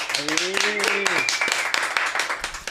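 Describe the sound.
Audience applause: a steady, fairly loud patter of many hands clapping continues throughout, with a voice briefly calling out over it near the start.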